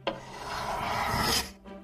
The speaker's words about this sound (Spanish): Usó también el tornillo y la lija para limar un poco.